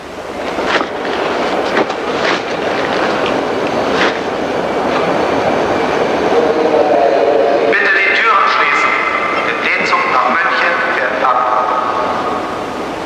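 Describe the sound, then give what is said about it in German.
A train with a railway post car stands waiting at a station platform, mail sacks ready to be loaded, with a steady loud rumble, scattered metallic clanks and knocks, and high squealing tones rising partway through; faint voices murmur in the background. “Und so kommen Sie auf den Bahnsteig. Der Zug steht schon da und die Postsäcke können gleich in den Bahnpostwagen gebracht werden.”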